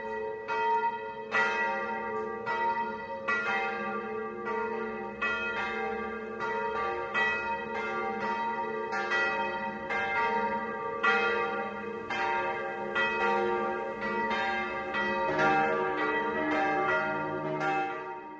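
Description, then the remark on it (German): Church bells in Halfing, Upper Bavaria, ring the 12 o'clock midday chime, several bells tolling in a steady, overlapping peal with rich, resonant overtones that sustain and blend continuously. No voices are heard. “Das Mittagsläuten kommt heute aus Halfing in Oberbayern.”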